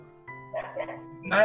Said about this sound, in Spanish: ese es mi perro que está ladrando.